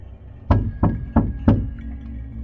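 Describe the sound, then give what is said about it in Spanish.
Four firm knocks on a wooden surface in quick, steady succession, fairly loud, each a dull thud with a short decay, then quiet room tone. “Toc toc, toc toc.”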